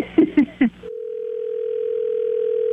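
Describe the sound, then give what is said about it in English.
A telephone being dialed: three quick keypad beeps, then a steady, unbroken electronic tone that holds at an even level for about two seconds. Clear, with no talking. “So I'm gonna give him a call and uh, we'll we'll we'll get him.”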